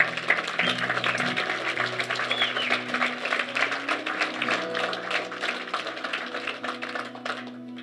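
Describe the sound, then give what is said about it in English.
A church audience breaks into steady, dense applause and clapping after a prayer, celebrating those who prayed. The clapping holds at full strength for several seconds, with faint low sustained tones underneath and no talking. “Can we just give a celebration for those?”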